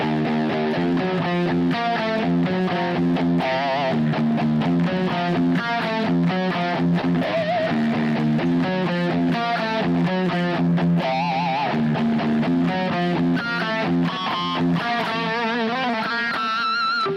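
Heavily distorted electric guitar plays a continuous riff, with a few high, squealing pinch harmonics rising above it and wavering with vibrato, made by the fingertip of the picking hand lightly touching the string right after the pick stroke. There are no voices.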